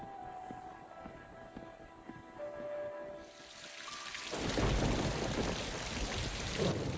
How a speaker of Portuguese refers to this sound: Então, tá chovendo, né? Chovendo.